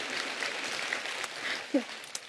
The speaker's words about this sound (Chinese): 对，哇，好开心，竟然有掌声。